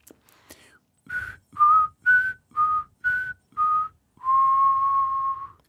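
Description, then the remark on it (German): A person whistles a short tune: six clipped, evenly spaced notes wavering slightly in pitch, then one long sustained note to finish, with no talking. “Ist nochmal schöner pfeifen.”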